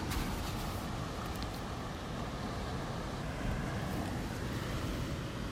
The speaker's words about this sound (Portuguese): Espero que dê para ouvir o mar, essa voz sempre em movimento. Espero que cheguem essas ondas até vocês.